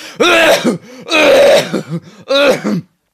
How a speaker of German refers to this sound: Genau, auch so ein komischer trockener Husten. Das ja, klingt ja dann immer Husten. wie bei ja, wie so bei Leuten, die so tun, als würden sie husten, aber mhm. spielen's schlecht.